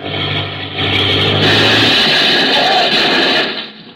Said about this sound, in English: what you're trying to do blasting that engine, and do you know you're applying full left rudder?